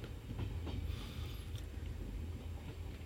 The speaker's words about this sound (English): The train continued to drag itself slowly for a long time. It continued to crawl and finally it stopped on the Bhayandar Bridge.